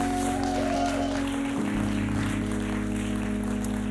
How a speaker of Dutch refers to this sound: Laten we het hele team met Mattencore een ongelooflijk groot applaus geven.